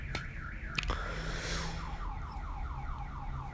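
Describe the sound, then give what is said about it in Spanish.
A car alarm wails in a city in a repeating warbling pattern, its tone sweeping up and down steadily over a constant low traffic rumble, with a couple of sharp clicks near the start. “suenan las alarmas, estamos en la ciudad, solo por un tiempito.”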